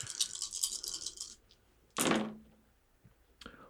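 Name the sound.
dice being rolled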